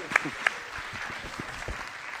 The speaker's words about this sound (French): C'est tout comme applaudissement. Applaudissez nos invités.